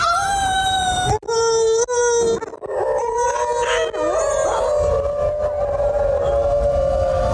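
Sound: howling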